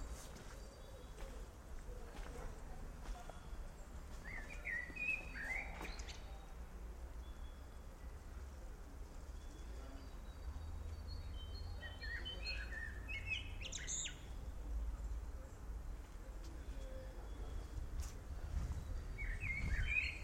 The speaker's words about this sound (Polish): Dookoła piękna wiosna. Ptaszki śpiewają. Słychać trochę podmuchy wiatru.